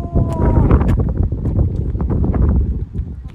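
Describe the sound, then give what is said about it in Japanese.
Wind buffets the microphone at a dam in autumn, with leaves starting to turn, in a steady, fairly loud low rumble with scattered soft thumps and gusts, and a faint voice comes through briefly near the start. “ちょうどいい気候かも紅葉始まっててこのね風がちょうどいいのよ”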